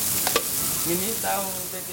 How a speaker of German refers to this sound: und dann muss man das dort äh, möglichst gleich auf der heißen Platte, die vor einem ist, muss man die anlegen und, und losbraten. Salsa jetzt jedes einzelne Patty.